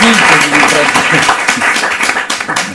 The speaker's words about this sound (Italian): un bel applauso.